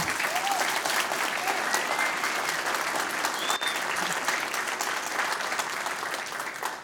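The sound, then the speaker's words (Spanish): Steady audience applause fills the whole stretch, a dense, even patter of many hands clapping at moderate volume without a clear peak, tapering slightly at the end. “That applause was so wishy-washy.”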